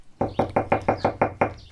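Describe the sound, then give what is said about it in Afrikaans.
Eight quick, firm knocks on a wooden door in a steady, slightly uneven rhythm, with no voices. “Na ruk is hy terug en hy klop weer aan die deur.”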